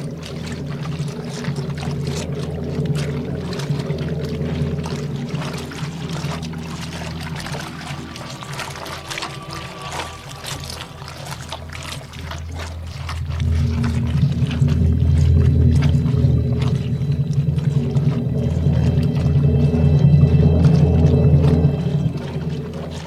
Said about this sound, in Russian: Артемьевский Dark Ambient здесь сплетается со звуками окружающей среды, плеском и шлепаньем солдатских ботинок по мелководью